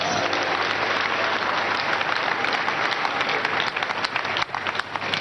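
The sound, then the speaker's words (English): An audience at a live Sunday service at the Synagogue Church of All Nations applauds steadily, a dense wash of many hands clapping at an even, loud level with no pause, thinning slightly in the last second. “Put a round of applause for Jesus Christ.”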